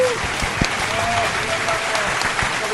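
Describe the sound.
A crowd claps steadily for a few seconds, a dense patter of many hands with a few sharper claps standing out, and faint voices and whoops mixed into the applause; applause for a band from Mexico visiting Colombia.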